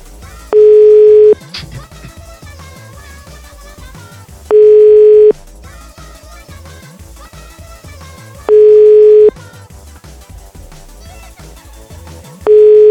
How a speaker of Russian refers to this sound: Сколько гудков еще подождать? Давайте посидим.